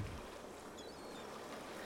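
Ocean waves wash in a steady, continuous rush of water, a broad hiss of surf with a low rumble underneath, holding even for the whole moment with no voices.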